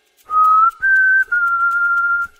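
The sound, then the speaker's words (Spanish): A person whistles a short tune imitating birds: three clear, sustained notes held at a fairly steady pitch, with brief gaps between them, loud with no talking. “Mmm, tampoco, porque silbaba, pero como los pájaros.”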